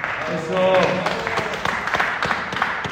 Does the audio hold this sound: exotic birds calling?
no